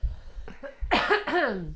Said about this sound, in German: Äh, aber jetzt, ich huste kurz.